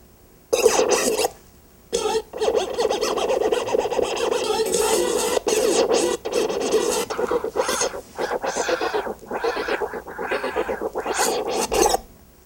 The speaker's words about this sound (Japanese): ターンテーブルの絵が出てくるアプリがあってこれだともうほんとスクラッチとかもできちゃうんですよ。こうやってやって、